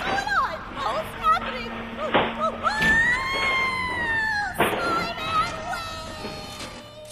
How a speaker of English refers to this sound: Sounded like a voice screaming out in the refuse and then suddenly being silenced.